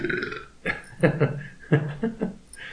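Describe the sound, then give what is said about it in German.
A drawn-out, throaty burp with several gurgling pulses, rising and falling over a couple of seconds, fairly loud and heard on its own without talking. “das war nicht ich, wo ich auch schon einige Bäuerchen gemacht habe.”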